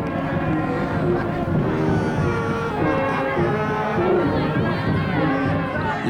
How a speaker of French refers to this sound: Procession aux flambeaux, parade, feux d'artifice, l'ambiance est clairement à la fête et les Néo-Orléanais en profitent pour faire un maximum de bruit.